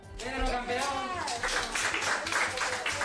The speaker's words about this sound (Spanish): Así ha subido a planta entre los aplausos de los sanitarios.